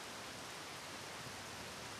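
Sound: heavy rain falling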